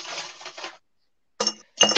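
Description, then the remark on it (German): Coins clatter and clink together in a bright jingle, then after a brief silence two more short bursts of metallic clinking follow. No one speaks. “Holt die Münzen raus! Simon, du bist dran diesmal. Münzen!”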